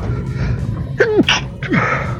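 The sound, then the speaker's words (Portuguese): A loud sneeze with a sharp voiced burst, followed moments later by a second, shorter sneeze, over a low steady background hum with no talking. “Passei aqui com, com espirro, mas vamos lá, vamos voltar.”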